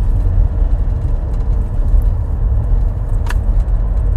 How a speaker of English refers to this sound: Um, I got a fucking douchebag driving right next to me. It's got to make his truck sound like a fucking dragon.